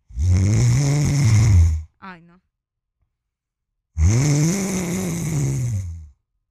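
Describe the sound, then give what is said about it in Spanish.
A voice imitates a mother's loud, rumbling snoring, likened to a revving Yamaha motorcycle, in two long bursts, separated by a brief spoken exclamation and a short pause. “Y yo, ¿será que mi mamá se compró una moto?”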